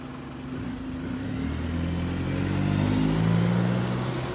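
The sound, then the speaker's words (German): A shuttle bus engine drones past, its low hum rising in pitch and loudness as the bus approaches and rolls steadily through an opened gate, with no voices. “Als der Bus durch das geöffnete Gitter gefahren war,”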